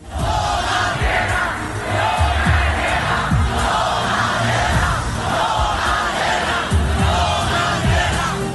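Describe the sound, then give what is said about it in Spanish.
A large crowd in Colombia chants in unison on 19 June, voices rising and falling in a steady repeating rhythm, with loud shouts and yells mixed into the dense, continuous roar. “Lo cierto es que medio país gritaba esto el 19 de junio.”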